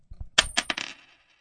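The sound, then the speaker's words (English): Several coins drop and clink onto a hard surface in a quick scatter of bright metallic rattles, fairly close and clear, then settle into a fading jingle. “Did change fall out of his pocket?”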